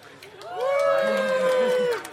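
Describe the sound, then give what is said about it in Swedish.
A live audience at Bokmässan cheers with a long, sustained whoop that swells in, holds a steady high pitch for about a second and a half, then drops away over a murmur of other voices. “Uh, eh, nu kanske publiken kanske vill göra lite ljud ifrån sig så att vi bevisar för lyssnarna att det är live.”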